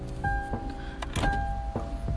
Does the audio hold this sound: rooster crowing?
no